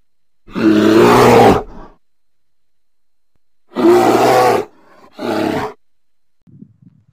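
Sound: bear roaring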